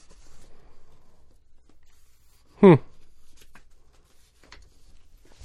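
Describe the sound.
A single quick rustle of paper being handled stands out against a quiet background, followed by a few faint taps and soft movements; someone briefly murmurs.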